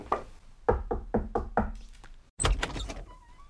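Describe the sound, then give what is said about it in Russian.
Five firm knocks on a door in quick, even succession, solid, followed by a louder thump or door movement and a faint rustle. “Он постучался в дверь.”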